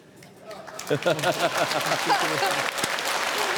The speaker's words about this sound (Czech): Ne, dneska mě ty lidi prostě mají rádi, ty jak vždycky tleská, řeknu, já řeknu prd a oni